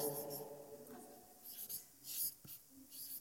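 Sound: writing on a board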